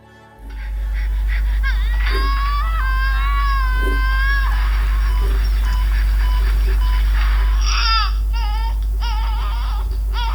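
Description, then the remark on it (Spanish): A newborn cries in long, wavering, high-pitched wails that rise and fall, then after a pause breaks into a burst of shorter sobbing cries, all over a steady low rumble. It is a staged, fictional recording of a childbirth. “Acabas de escuchar un parto ficticio y estereotipado.”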